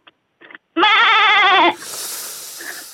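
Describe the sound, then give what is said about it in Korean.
A person imitates a goat with one loud, wavering nasal bleat lasting about a second, a final attempt at a goat-sound imitation, preceded by a couple of short faint sounds and followed by hissy background noise. “염소 소리 마지막입니다 염소.”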